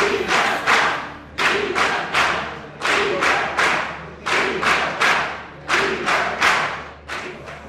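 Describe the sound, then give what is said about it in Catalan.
Deputies in a parliament chant and shout in a steady rhythmic cadence, calling for the release of the imprisoned, punctuated by loud thumps and table banging, with applause mixed in, without pause. “Tot plegat desencadena crits i aplaudiments d'alguns dels diputats reclamant la llibertat dels empresonats.”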